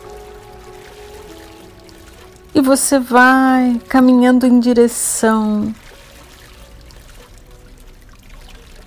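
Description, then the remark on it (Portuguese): Soft, steady rush of a waterfall pouring into a lake runs continuously in the background, low and even, while a calm voice speaks briefly in the middle over it. “E assim, à sua frente, aparece uma linda cachoeira formando um lago à sua frente.”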